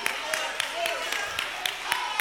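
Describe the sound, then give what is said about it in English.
Steady hand clapping by a preacher clapping for himself during a sermon, about eight sharp claps in an even, fairly quick rhythm, with a low murmur of voices underneath. “I clap for my own self.”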